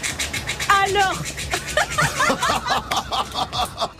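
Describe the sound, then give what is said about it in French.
A voice makes rapid clicking and chattering mouth noises imitating a squirrel eating small hazelnuts, with brief giggly voiced bursts mixed in and a short spoken word. “Ça, c'est un bruit d'écureuil.”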